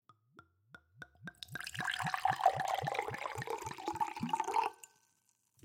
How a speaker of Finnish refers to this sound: Tässä vaiheessa kaadetaan viinit.